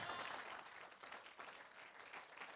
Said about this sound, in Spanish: Dale un aplauso al Espíritu Santo.